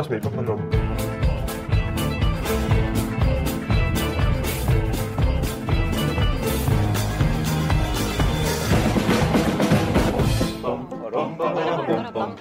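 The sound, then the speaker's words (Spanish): A loud, upbeat pop-rock parody song plays, with voices singing over a full band and steady drumbeats, easing slightly near the end. “Así suena The Red Wedding con el cast de Game of Thrones y …”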